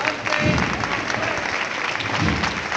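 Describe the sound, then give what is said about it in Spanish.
A street crowd on Calle Bernabé Soriano applauds steadily as the procession float of Jesús del Perdón advances, a dense wash of many hands clapping at once with a few louder swells, sustained and fairly loud throughout with no voices standing out. “Pues comenzando en el primer tramo de la calle Bernabé Soriano, el paso de Jesús del Perdón, andando de frente, con poderío, levantando los aplausos, respetable, coincidiendo con el final de la marcha.”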